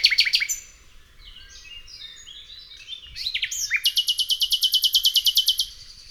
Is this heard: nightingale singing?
yes